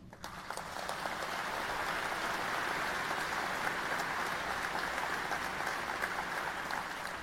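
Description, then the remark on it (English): Steady, sustained applause from a large crowd, a dense wash of many hands clapping that holds at an even level for several seconds with no voices breaking through. “Looks like a lot of applause that you're bragging about being alone.”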